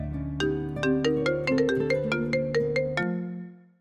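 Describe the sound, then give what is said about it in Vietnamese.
A phone line rings on an outgoing call with a bright electronic melody of quick repeated notes over a steady low hum for about three seconds, then cuts off abruptly; no one speaks. “để anh anh gọi thử cho hoài ân xem thế nào nhé”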